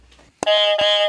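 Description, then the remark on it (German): A pink quiz game buzzer goes off loud after a soft bit of background, a bright electronic tone that holds for most of a second with a second press retriggering it mid-sound. “dazu habe ich wieder die Buzzer mitgebracht”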